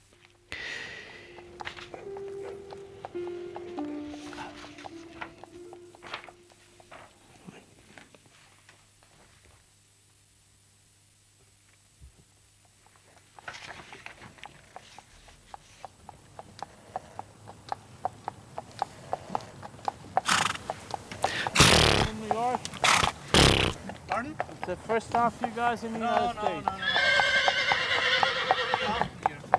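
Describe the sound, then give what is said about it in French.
A horse whinnies loudly at the start, then after a quiet stretch the steady, rhythmic clip-clop of a horse's hooves pulling a horse-drawn carriage along the streets of New York builds, with snorts and carriage rattling, growing louder toward the end. “Euh, nous entendons le bruit des sabots. Nous sommes dans une calèche.”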